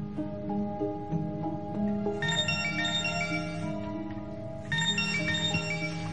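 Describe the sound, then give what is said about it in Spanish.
A phone rings with a bright, bell-like electronic tone, sounding in repeated bursts over a steady low hum, fairly loud, with no one speaking. “Tu teléfono suena y se acerca para atender la llamada.”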